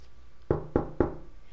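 Three quick, evenly spaced knocks on a car window by someone holding two drinks, sharp, rapping out a steady rhythm against a quiet background with no one speaking.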